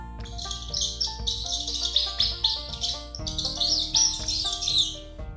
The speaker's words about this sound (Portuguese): Foi aí que passou o rato. Eu quero, como é a sua voz? O rato chiou.